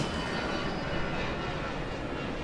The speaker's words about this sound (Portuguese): Já no aeroporto, prestes a apanhar o avião de regresso,